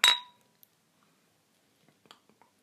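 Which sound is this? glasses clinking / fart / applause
glasses clinking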